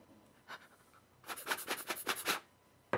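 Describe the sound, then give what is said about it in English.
Someone blows on dice in a quick run of about six breathy puffs, fairly loud, after a single soft puff earlier; no one speaks. “Oh my god, fucking blowing on your dice.”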